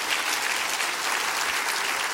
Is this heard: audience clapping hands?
yes